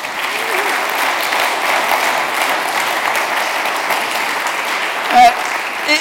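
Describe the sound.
An audience applauds the interpreter steadily for about six seconds, a dense, even patter of many hands clapping at a fairly loud level, with a brief murmur of voices near the end.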